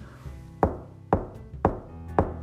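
Four firm knocks on a door, evenly spaced in a steady rhythm, each a sharp woody thud with a brief ring, standing alone over a low background hum with no talking.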